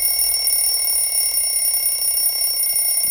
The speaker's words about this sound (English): There is a very good feature in the iPhone, and that is the alarm. For example, uh, when it's 6 o'clock in the morning and your alarm is on, you will suddenly hear about this sound.